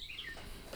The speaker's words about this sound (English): There's a bird outside the window that will not shut up